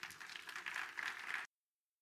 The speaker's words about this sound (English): Are you here? Come on, let's get a Lord a hand clap of praise.